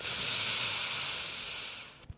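Heavy rain pours down outside the house, a dense, steady hiss for about two seconds before it cuts off with a soft low thump. No one speaks.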